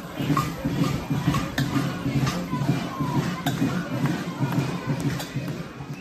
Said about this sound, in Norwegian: Ja, her hørte vi altså lyden av fløyter, kasserollokk, kubjeller og ikke minst sinte bergensere som ropte 'bygg den banen'. Og det var altså aktivistgruppen Bergens Mødre som tok initiativ til denne samlingen.